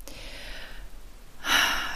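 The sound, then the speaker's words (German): A deep breath: a soft, airy inhale drawn in, a brief pause, then a louder, rushing exhale, with no talking. “ja, muss ich selbst auch gleich atmen.”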